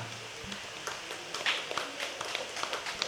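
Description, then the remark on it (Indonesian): Audience applause for the opening speaker of a discussion on media: a steady, dense patter of many hands clapping at moderate volume for about three seconds, with a few sharper individual claps standing out and no talking. “Tepuk tangan untuk kita pemantik kita.”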